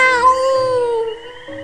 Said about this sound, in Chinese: 喵， 小猫答应说：“ 喵。”